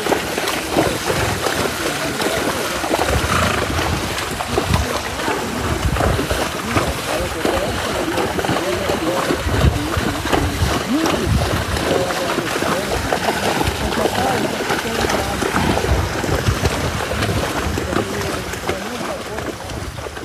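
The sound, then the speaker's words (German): Horses trudging through deep swamp water in the Pantanal wetland of western Brazil, at the Posada Aquapé, with steady, rhythmic sloshing and splashing that continues without a break, each heavy step churning the water. “Vor allem Pferde sind sehr, sehr gut, um wirklich durch diesen tiefen Sumpf zu stapfen.”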